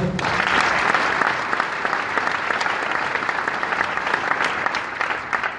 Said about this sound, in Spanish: que también para él pido un fuerte aplauso.